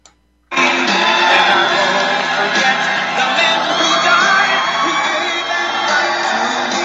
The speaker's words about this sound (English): crowd's going wild. He's going to the podium now. You can see the the blush in his face to look out at thousands of people like you just shouting our support.